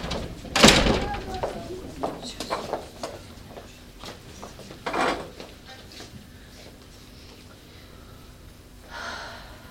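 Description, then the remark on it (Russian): A sharp door clunk near the start, followed by softer knocks, shuffling and rustling as actors walk out of two doors, two young women and a young man from the right and two men and a woman from the left, with faint voices in the background and a breathy hiss near the end. “Из правой двери выходят две девушки и молодой человек. Из левой двое мужчин и женщина.”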